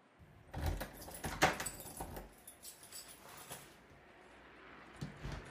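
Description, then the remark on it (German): Keys jangle in a few bright metallic shakes as the locked door of a radio station is opened, followed by the clicks and clunks of a lock turning and the door being handled, with quieter rattling afterward. “Bist du immer der Erste im Sender? Und hast nur du einen Schlüssel?”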